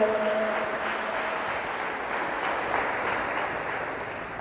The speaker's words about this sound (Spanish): Dale fuertes palmas porque Él se la merece. Es para Él, es para Él, solamente para Él.